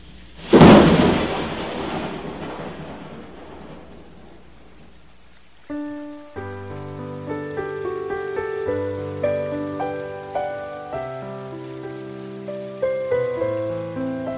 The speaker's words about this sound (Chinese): 太阳雨。